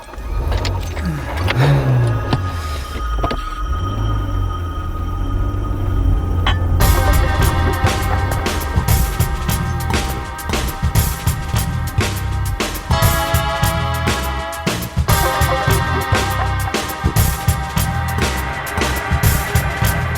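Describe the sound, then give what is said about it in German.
A car drives along with a steady low engine rumble and road noise, joined after a few seconds by a brighter layer of music-like tones over the continuous hum. “Lass uns erstmal zum vereinbarten Treffpunkt zurückfahren und Peter einsammeln.”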